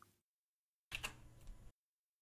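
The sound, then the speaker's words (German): A short burst of computer keyboard clatter, several quick key clicks lasting under a second, moderately loud, with silence before and after. “Man hört das Klappern. Das klappert. Tastatur.”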